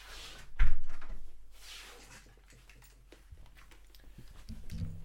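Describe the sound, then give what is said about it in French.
A door closes with a single solid thud, preceded by soft rustling and shuffling, then fades into quiet background noise with faint handling sounds. “Attends, je vais fermer Donc, la porte.”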